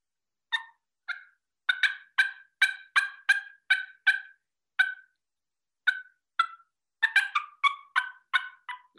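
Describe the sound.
A turkey game call sounds a run of sharp, raspy yelps and clucks, fairly loud, in uneven bursts with brief pauses between groups. No one talks.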